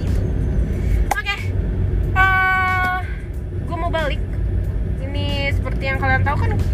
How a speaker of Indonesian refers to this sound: gue selalu recording di dalam mobil sambil nyetir nah tuh kan jelas banget ya